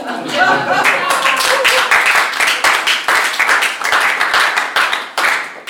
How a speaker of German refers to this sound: Ähm zwischen Applaus ist erlaubt.